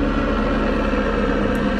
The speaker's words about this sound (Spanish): Ah, estoy al aire libre, ¿eh? un helicóptero pasando por aquí.